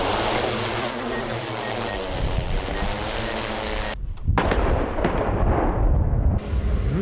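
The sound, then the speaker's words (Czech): A heavy, rumbling blast from an artillery shell hitting the ground in a target impact area about 11 km from where it was fired, during a military firing exercise, followed by a rolling boom and crackling debris, loud, with no voices. “Střeba dopadla s požadovanou přesností a prokázala, že náš komerční dron je použitelný pro potřeby dělostřelstva.”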